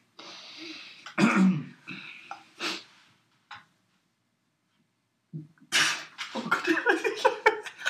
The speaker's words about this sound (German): ich habe mit heißem Tee gespuckt, das tut weh, aber. Das ist nicht schlimm, ich glaube, das am Boden ist. Ah, ja und auf mir.